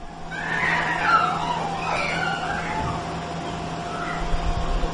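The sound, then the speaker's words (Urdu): A cat meows several times in drawn-out, wavering cries that rise and fall, over a steady low background hum with no talking. “بلی کی آواز ہے بچوں کی آواز ہے”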